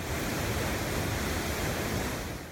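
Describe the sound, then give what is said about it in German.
A steady, loud roar of rushing water from the Hooker Falls waterfall near Taupo, New Zealand, where 220,000 litres of water plunge down every second; a dense continuous wash of noise with no breaks, filling the whole clip without any voices. “Hier donnern jede Sekunde 220.000 Liter Wasser in die Tiefe.”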